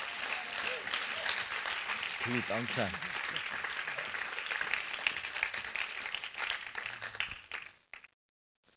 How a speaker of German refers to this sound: Geben wir ihnen einen riesen Applaus. Merci, viel, viel mal.